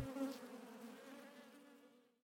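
A steady, droning insect buzz of swarms of wasps covering a salmon and carrying it off piece by piece, holding a constant pitch before fading away at the end. No voices.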